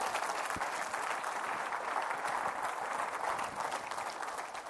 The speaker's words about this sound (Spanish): Dele un fuerte, fuerte aplauso a Cristo.